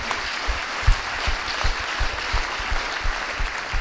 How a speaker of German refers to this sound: Wir können einfach mal klatschen für die Leute, die auch gearbeitet haben.